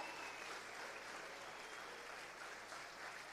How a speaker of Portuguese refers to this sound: mas se é para Jesus, dá o melhor aplauso e o glória a Deus que ele merece. Aleluia!